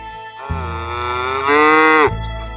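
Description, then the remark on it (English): A single long, drawn-out cow moo with a rich harmonic tone that swells louder and brighter toward its end before cutting off, heard alone with no talking. “We tied the cows' tails together while they were giving milk.”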